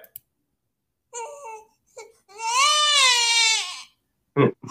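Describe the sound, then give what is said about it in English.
Babies crying and wailing: a couple of short whimpers, then one long, wavering wail that swells and fades, followed by a brief rough burst at the end. “Bunch of babies, right?”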